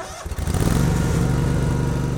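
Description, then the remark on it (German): A ride-on lawn mower engine, started by a woman who has climbed onto it at a garden shed, turns over with a few quick sputters, then catches and settles into a loud, steady, rumbling idle. No one speaks. “Sie grinset, steigt auf den Rasenmäher und lädt ihn an.”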